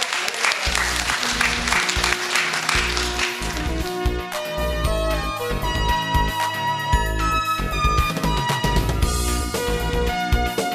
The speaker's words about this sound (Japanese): ここまでは森トラスト総合リート投資法人 IR プレゼン、森トラストアセットマネジメント株式会社代表取締役社長堀野聡さんでした。どうぞ皆様もう一度大きな拍手をお願いいたします。